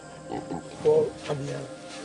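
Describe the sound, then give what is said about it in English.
A pig grunts several times in quick, irregular bursts, moderately loud, with a longer, lower snort near the end, over a faint murmur of background noise, inside a raised stilt home where pigs are kept up off the rain-flooded ground. “They have the dogs up here. They have pigs up here.”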